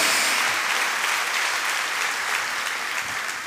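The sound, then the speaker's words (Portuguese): An audience applauds steadily, a dense crackle of many hands clapping at an even, sustained loudness for the whole stretch, with no voices standing out above it. “Dá uma salva de palmas, igreja!”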